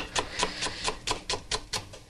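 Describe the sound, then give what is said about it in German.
A knife taps steadily on a cutting board, about nine crisp chops in quick, even rhythm as shallots are diced into fine cubes, clear with no talking. “Die Schalotten schneide ich jetzt hier.”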